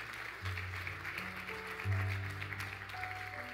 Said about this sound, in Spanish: Alguien que pueda glorificar el nombre del Padre con un fuerte aplauso acá.